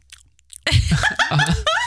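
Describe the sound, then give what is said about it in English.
A voice imitates a mouth chewing food with a quick run of loud, smacking, mumbled mouth sounds, after a few faint clicks. “you can hear the the mouth eating”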